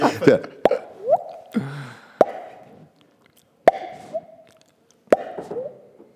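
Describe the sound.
A voice imitates a small drop of water dripping in a cave: a series of sharp mouth clicks and pops, about five, spaced irregularly, with hollow gliding tones between them, fairly loud.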